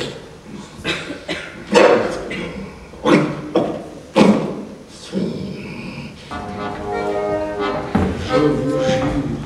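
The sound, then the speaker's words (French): A wolf calls: a run of sharp barks and yelps gives way to a long, wavering, whining howl that carries to the end. “que je ne suis pas fou, j'ai bien cru entendre le loup.”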